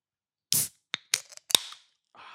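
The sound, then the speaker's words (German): A beer bottle is opened: a burst of hiss, a few sharp clicks and a bright metallic pop, then a soft steady fizz trailing off at the end. No one speaks. “Also, das ist echt perfekt, wie in der Werbung. ja, damit die, die Zuschauer auch was vom Bier haben dann.”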